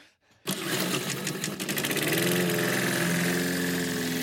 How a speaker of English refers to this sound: Mowers, start your engines.